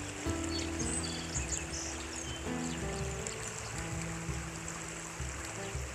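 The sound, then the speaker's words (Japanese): A steady, babbling river stream runs continuously, with birds chirping intermittently above the flowing water, recorded outdoors beside a river in Sapporo on a sunny, hot morning during a walk. “川の辺りで川のせせらぎと鳥の声を聞きながら話してます”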